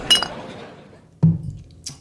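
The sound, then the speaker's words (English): Glasses clink together in a toast: a bright, ringing clink, followed by a duller knock and one more quick, sharp tap, with no talking. “Um, and then let's take one more drink and we are done for the day. Cheers.”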